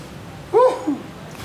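A single sneeze bursts out sharply, a short voiced blast trailed by a smaller second puff, standing alone against a faint background with no talking.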